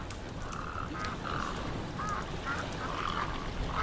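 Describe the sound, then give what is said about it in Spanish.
Several ducks quack in quick, repeated bursts across a lake where duck hunters are, layered over a constant rushing background of wind or water, with no one speaking. “En el lago se encuentran con los cazadores de patos.”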